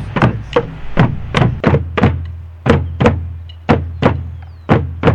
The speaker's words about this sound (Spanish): En el 2 y el 3 va a ir el parche, que es como el latido del corazón. 1, 2, 3, 1, 1, 2, 3.